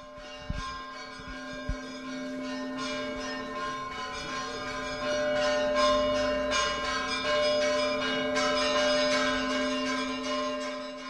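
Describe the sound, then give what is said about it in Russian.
Church bells of the Svyatogorsky Monastery ring in a dense, continuous peal, with several bells struck repeatedly and their long metallic tones overlapping and humming on; loud, with no talking. “Бориса Годунова будет ставить с колоколами Святогорского монастыря.”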